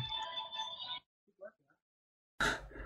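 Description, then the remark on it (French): A mobile phone ringtone plays the Star Wars Rogue One film theme melody for about a second, then cuts off into near silence before a voice starts speaking. “Non, c'est mon téléphone.”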